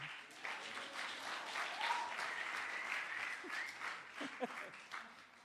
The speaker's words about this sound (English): You can clap at that if you want.